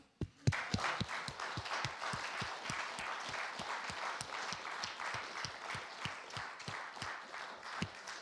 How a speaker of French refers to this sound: Alors merci, on vous applaudit encore.